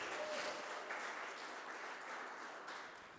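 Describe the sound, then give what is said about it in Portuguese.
An audience applauding Jesus, a steady wash of many hands clapping together that holds for about three seconds before easing slightly at the end. No voices stand out. “Aplauda Jesus Mel, Vamos lá, aplauda Jesus aí.”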